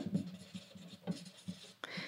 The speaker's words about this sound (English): Now again, normally this is pencil, and I'm going over it with pencil.